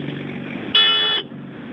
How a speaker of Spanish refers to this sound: Funciona el claxon, acaba de darle.